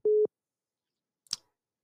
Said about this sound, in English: oh goodness uh, sorry, the phone call was coming through.